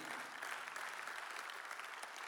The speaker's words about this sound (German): Lass uns unseren Locations einen großen Applaus geben. Come on. Mega schön. Amazing. Amazing.